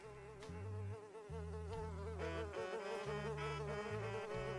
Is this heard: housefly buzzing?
yes